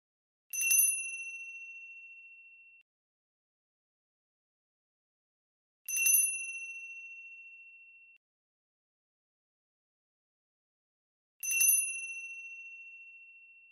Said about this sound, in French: Ce premier son était simple. Il s'agissait en effet d'une clochette à main qui devait résonner dans tout votre corps.